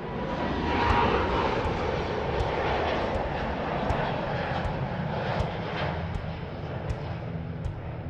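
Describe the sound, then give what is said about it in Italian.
An Airbus airliner, the 11:50 flight to Madrid, roars overhead in a broad, steady rumble that stays loud and unbroken for the whole stretch, swelling slightly near the start, with no voices. “L'ultima cosa che vede è la scia di un aereo che passa, l'Airbus delle 11.50 per Madrid.”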